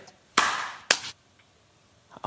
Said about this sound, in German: klatschen jetzt mal bei drei. Oh. Eins, zwei.